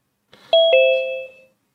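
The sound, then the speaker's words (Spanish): A bright two-note electronic chime as someone joins an online call, a quick ding followed by a lower tone that rings out and fades over about a second, heard clearly and alone with no talking. “mira, ve, ya entró aquí”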